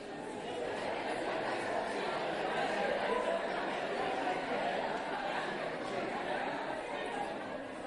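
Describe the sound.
An audience chatting among themselves, telling one another how nice they look; many overlapping voices form a steady, busy murmur for several seconds, with occasional light chuckles.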